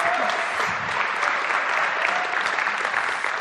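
A crowd claps steadily for several seconds, a dense, even patter of many hands at a constant loud level with no voices standing out.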